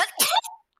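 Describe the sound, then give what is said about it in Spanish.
A single sharp, loud sneeze close to the microphone, with a brief voiced intake just before the explosive burst and a short trailing tail as it fades. “Salud.”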